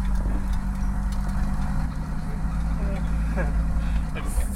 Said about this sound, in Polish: nie przestrasz się, mu auto wydaje w czasie jazdy dziwne dźwięki, tak? E, stuki, hałasy. No, trzeba się przyzwyczaić